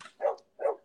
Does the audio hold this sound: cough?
no